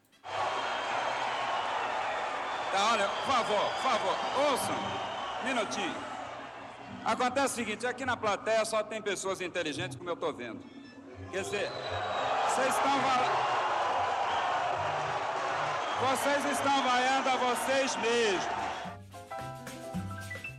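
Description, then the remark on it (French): An audience booing at a festival as a musician asks for calm before starting to play: a dense, loud wash of many voices jeering and shouting together, swelling in waves with sharp bursts of noise, then briefly dipping before rising again. “Les huées du public sont un instrument du festival à part entière.”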